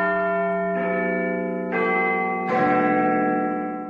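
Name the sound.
large bell ringing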